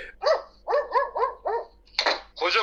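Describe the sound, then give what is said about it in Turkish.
A large dog barks about seven times in quick succession, fairly loud, with the last two barks harsher and more forceful. No one speaks. “koca köpekler evde yaşıyorlar ya. Çok acayip.”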